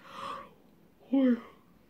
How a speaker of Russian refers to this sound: Даже вспоминая этот заговор, зеваешь.